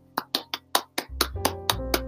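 About ten sharp hand claps in a steady, even rhythm, distinct, played over a soft sustained musical tone that shifts lower partway through.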